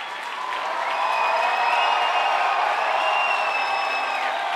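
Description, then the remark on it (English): A large concert audience applauds five musicians steadily throughout, a dense wash of clapping with scattered whistles and cheers rising above it, loud and sustained from start to finish. “shouting at the crowd in appreciation.”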